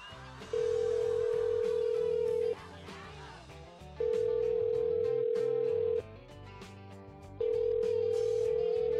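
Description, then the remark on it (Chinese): A phone's ringback tone while a call is being placed sounds three times, each a steady, mid-pitched hum lasting about two seconds with short gaps between, over quieter background music with no talking. “我们在这轮轮训的结束之后，拨通了他的电话， 也跟他一起聊了聊刚刚结束的济州岛的白油 TMB 比赛和马上就要开始的云丘山的白油 TMB 的赛事。”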